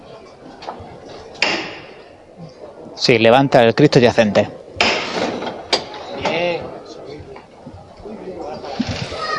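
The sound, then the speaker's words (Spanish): The knocker on a Holy Week procession float in Jaén sounds a call: a quick cluster of sharp, hard knocks, followed by voices and crowd murmur; a man speaks briefly. “vamos a escuchar la llamada.”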